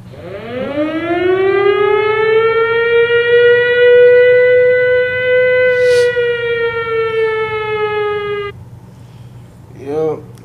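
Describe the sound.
A loud air-raid style alarm siren winds up from a low growl into a steady, droning wail, holds for several seconds, then cuts off abruptly, followed by a brief voice.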